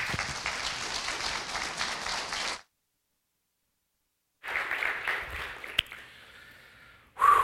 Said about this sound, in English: So, anyways, give my wife a round of applause.